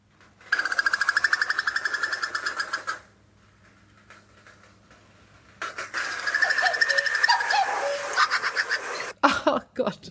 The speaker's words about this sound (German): Ja, der, ich hab's, der Ruf, der Ruf des Kuckuckweibchens.